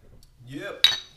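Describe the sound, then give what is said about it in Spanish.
A single sharp glassy clink of beer glasses of lager in a toast in Miami rings out near the end, with a bright ringing tone, preceded by a rising voice-like murmur; fairly loud. “Salud, salud.”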